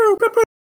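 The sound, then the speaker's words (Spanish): A voice mimics a police siren with three quick, sustained high-pitched wails run close together, then it falls silent. “y entonces de momento, ah, como un minuto después, el bien buen policía,”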